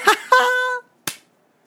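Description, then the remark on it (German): Two sharp, loud hand claps about a second apart, with a short high-pitched vocal squeal, like a laugh, between them. “Du lachst auch hoch und klatscht gerne auch mal in die Hand.”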